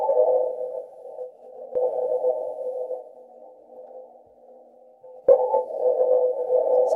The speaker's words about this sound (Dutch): Wij zitten hier nu op aarde te luisteren naar de wind op Mars. Dus zet het nog maar een keer aan, dan kunnen we nog eens luisteren. Tussendoor, dus als je echt geruis hoort, is het de wind. En de kiek kiek, dat zijn de machinekes.